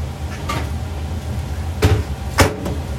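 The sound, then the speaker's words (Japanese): Dry pasta dropped into boiling water: a few short rattling bursts, two louder ones near the end, over a steady low rumble of bubbling water. “さあお湯が沸いたのでパスタを入れます”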